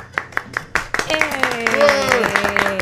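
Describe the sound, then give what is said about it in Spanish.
A short burst of light applause for a debut: a handful of sharp, scattered claps at first, then voices join in as a few more claps continue underneath. “Debut, un aplauso por favor eh, para el debut.”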